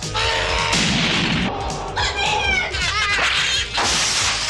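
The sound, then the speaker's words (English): A cat meows a few times in short, wavering cries, heard over a loud, dense wash of background music and noise. “Here, kitty, kitty, kitty, kitty. What is that?”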